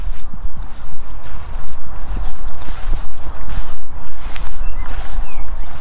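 Footsteps crunch and rustle through dry hay at a steady walking pace, each step a soft crackling swish with no voices.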